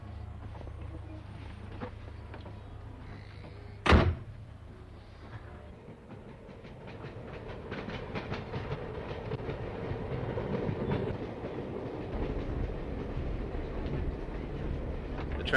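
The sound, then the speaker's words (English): A train rumbles steadily along the rails with a rhythmic clickety-clack, heard from inside the carriage, with a sharp loud thump near the start before the running noise builds and continues. The train is travelling east from Mullingar alongside the canal and has just passed under McNead's Bridge, a few miles from Kinnegad. “train has just passed under McNead's Bridge, which is uh, a few miles from Kinnegad.”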